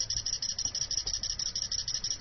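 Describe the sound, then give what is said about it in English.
A liquid level indicator called "the cricket" gives a rapid, continuous electronic chirping like a cricket as liquid is poured in: a steady high-pitched trill pulsing evenly throughout, clear, with faint low rumble underneath and no talking. “Hence why it's called the cricket. It sounds like a cricket.”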